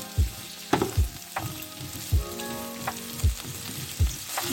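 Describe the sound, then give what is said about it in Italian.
Celery sizzles and crackles steadily as it fries for a few minutes in hot seed oil, with a continuous hiss broken by periodic low thumps and scrapes of stirring at a moderate level. No one speaks. “ok il mio sedano si è eh, ben asciugato a questo punto posso aggiungere l'olio di semi e andiamo a mescolare bene e lo friggiamo per un qualche minuto”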